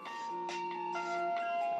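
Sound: mobile phone ringing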